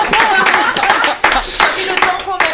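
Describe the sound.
A crowd applauds with a dense, continuous patter of many hands clapping at an even loudness, with indistinct voices mixed in underneath throughout.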